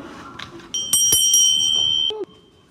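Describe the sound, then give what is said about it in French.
A bright bell chime rings as the signal to turn the page in a read-aloud of the picture book As-tu vu mon dragon by Claire Saint-Ange: a few quick strikes blend into one sustained, shimmering tone that cuts off after about a second and a half. No one speaks. “Euh, euh, quand t'entends la cloche, tourne la page.”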